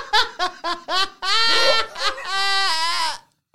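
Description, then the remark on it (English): A voice performs a short game jingle sting: five quick staccato notes, then two long, wavering held tones in a bleating, goat-like warble, loud with no backing music. “That's the game jingle now.”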